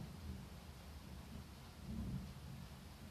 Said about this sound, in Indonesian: Oke, ada petir. Apakah kalian mendengar? Ada suara rintikan hujan.